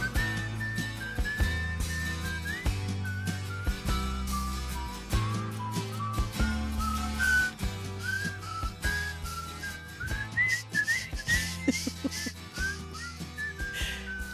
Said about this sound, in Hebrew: אני לא מבינה, אתה גרמת לי לשרוק קבל עם ו...